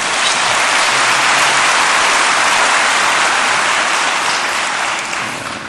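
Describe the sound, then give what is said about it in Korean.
A church audience claps in thanks to God, a loud, dense wash of many hands that holds for several seconds before easing slightly at the end, with no voices over it. “할렐루야 우리 하나님께 감사의 박수 올려드립니다”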